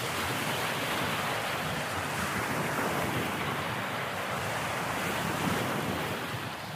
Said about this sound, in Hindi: practical level पर किसी भी ऐसी आवाज को जो लगातार एक जैसे निरंतर हमारे कानों तक पहुंचती है उसे हम व्हाइट नॉइज कहते हैं जैसे कि बारिश की आवाज समुद्र की लहरों का शोर